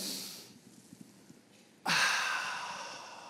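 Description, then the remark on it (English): A short breathy rush fades to near silence, then a loud, sustained airy whoosh as a group of people draws a big, deep breath in together before chanting a script, filling the rest of the moment. “Give me a big, deep breath in.”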